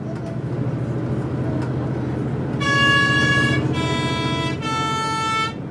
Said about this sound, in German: Der Bus quält sich auf den Maloya-Pass.